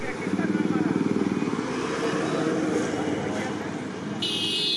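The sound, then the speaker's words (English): Busy street traffic in New Delhi, India: a steady wash of engine noise with a pulsing motorbike rumble at the start, indistinct voices mixed in, and a shrill horn-like blare cutting in at the very end. “Far from the sounds and smells of the New Delhi streets”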